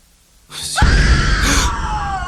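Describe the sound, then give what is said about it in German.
A loud, piercing human scream from someone somewhere in a house who has stepped on a floor tile erupts after a brief quiet moment and holds for well over a second, slowly sliding downward in pitch, raw with no speech around it. “Bob brauchte ein paar Sekunden, bis ihm klar war, was dieser Schrei bedeutete.”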